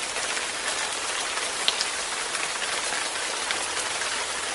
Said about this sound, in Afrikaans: Hmm. Nee, nou weet, die reën sous neer daar buite, mos jy? Alles is nat van die water.